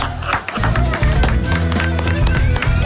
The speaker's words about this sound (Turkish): Doğru, haklı, alkış.